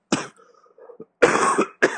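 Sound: cough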